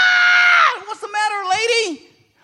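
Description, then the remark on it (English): A voice imitates a woman screaming at a building fire: a loud, sustained high-pitched cry that slides downward, followed by a brief wavering, wailing continuation before cutting off into silence. “Well, in the background, they hear this woman screaming, ah!”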